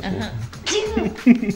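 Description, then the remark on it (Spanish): A single sharp sneeze bursts out, mixed in with voiced, laugh-like sounds and talking around it. “Salud.”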